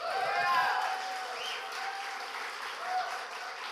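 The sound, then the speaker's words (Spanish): An audience applauds to welcome a woman called to the front, a dense, steady wash of many hands clapping, holding fairly even loudness throughout, with a few voices calling out over it. “Quiero que la recibamos con un aplauso.”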